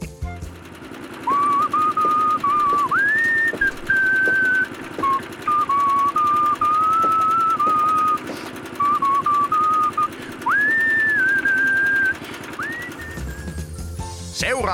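A clear whistled tango melody, composed while casting a foundation plinth and played as a sample for a renovation whistling contest, with gliding notes for about eleven seconds over a steady, loud mechanical chugging, like a machine running throughout.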